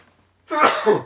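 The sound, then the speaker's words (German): A single sudden sneeze bursts out after a brief quiet moment, loud, with a sharp breathy onset that trails off within half a second. “Ähm, Gesundheit.”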